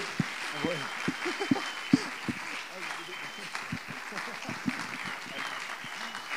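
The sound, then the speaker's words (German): An audience claps steadily to welcome a speaker onto the stage, a dense wash of many hands with sharper individual claps popping out irregularly, continuous for several seconds at moderate loudness. “mit einem dicken Applaus auf die Bühne bitten und dann übergebe ich ihm das Mikrofon.”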